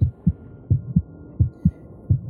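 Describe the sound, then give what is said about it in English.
A heartbeat thumps in steady lub-dub pairs, about four beats at a calm, even pace, coming from a pale ceramic jar and audible from about 10 feet out. The deep, muffled pulses sit over a faint low hum, with no voices. “At five, at about 10 feet out, the heartbeat can be heard from this jar.”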